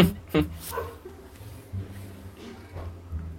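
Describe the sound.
A small female dog named Mía gives a few short, sharp yips and whimpers near the start while people talk over and around the sounds.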